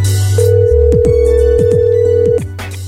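A phone call rings out over the line for a test call about a job vacancy in Saratov: a steady electronic tone with a low buzzing hum underneath and a few quick sliding blips, heard clearly with no one talking.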